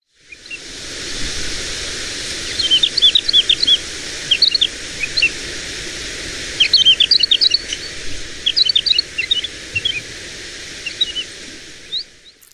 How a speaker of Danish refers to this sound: Fugleeksperten, øh, ornitologen eller måske bare den opmærksomme lytter har måske gættet det, men øh, til alle os andre, inklusive mig, så kan jeg fortælle, at det selvfølgelig var en hedelærke.